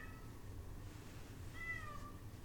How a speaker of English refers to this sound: He's still meowing at the door. Because That's he uh, a, loves me. That's our new background noise.